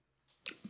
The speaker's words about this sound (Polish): mój pies się dławi czymś. Jeżeli no. słyszycie no. w tle, w tle e, kaszlenie, to mój pies zbyt szybko je przysmaczek.